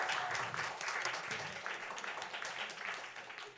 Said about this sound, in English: I want to bring out our amazing guests to talk about it. Want to give them a round of applause? Getting wound up? Getting excited? Yes.